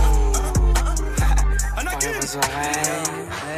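A rap track plays loudly, with deep booming bass, sharp rhythmic percussion hits and a rapping vocal coming in over the beat partway through.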